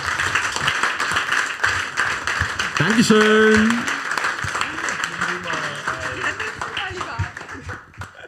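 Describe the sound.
A live audience claps steadily for about eight seconds, a dense, even wash of applause that fades slightly at the end, while a voice speaks and calls out briefly over it.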